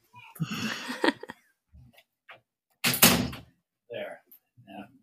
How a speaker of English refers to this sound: No, that, that's hold on for a second. I just got to close my door.